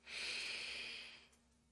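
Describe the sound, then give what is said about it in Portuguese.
A single long, airy deep breath in and out, a soft steady rush of air that fades out after about a second, taken during a guided reiki breathing practice. No talking, just quiet breathing. “Faz uma respiração profunda e solta.”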